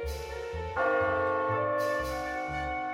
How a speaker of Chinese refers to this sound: 感觉过了好久，他听到门厅大钟的报时声